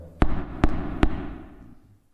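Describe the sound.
Three firm knocks on a wooden house door, evenly spaced about half a second apart, fairly loud, each with a short hollow ring that fades out afterward; a young man is knocking from outside the door.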